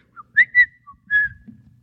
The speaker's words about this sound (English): Oh, Oh, I came as fast as I could. I thought you were whistling for me.